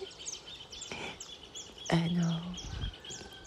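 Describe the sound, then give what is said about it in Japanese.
Wild birds chirp repeatedly in the background, quick high calls scattered through a natural setting in the mountains surrounded by trees, as the morning grows light, while a person briefly says a word partway through. “まだ寝てる みんな寝てるから大きな声で話せないんだけれどちょっとだけ皆様にもこの鳥の声とか聞いていただきたいなでねこれ聞いてると本当に幸せにねなるんですよ”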